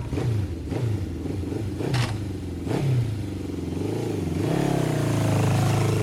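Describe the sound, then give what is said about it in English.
A motorcycle engine revs in several quick bursts, its low rumble rising and falling, then climbs into a sustained, louder roar near the end, with no voices. “Who likes motorcycles?”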